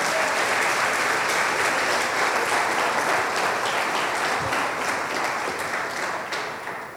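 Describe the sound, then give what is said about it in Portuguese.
A large audience applauds God steadily for several seconds, a dense wash of many hands clapping at once, loud and sustained before tapering slightly at the end. No one speaks over it. “Vamos aplaudir ao nosso Deus, queridos.”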